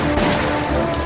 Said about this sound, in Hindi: उनमें से एक आदमी ने सेठ जी को आवाज दी सेठ जी मुड़े और उन दोनों आदमियों ने अपनी अपनी बंदूकों से एक एक गोली सेठ जी पर दाग दी